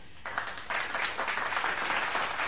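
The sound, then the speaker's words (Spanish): A burst of crowd applause starts after a brief silence and holds steady, a dense, even wash of many hands clapping at once with no voices over it. “A ver, voy a poner un aplauso porque”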